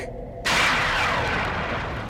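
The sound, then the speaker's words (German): A thunder sound effect: a low rumble suddenly breaks into a loud, crashing thunderclap, followed by a long roaring rumble that slowly fades over about two seconds. No one speaks. “Donnern mache ich mit links.”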